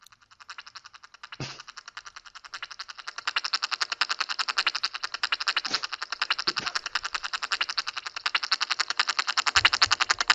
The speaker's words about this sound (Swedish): Öh, fy fan vad obehagligt. Tänk om de lät så. Ja. Va, vad var det där? vad är det här? Real dinosaur sounds.